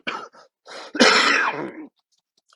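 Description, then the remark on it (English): A person coughs: a few short, rough hacks followed by a longer, harsh, raspy cough, then quiet. “that cough brought back some memories.”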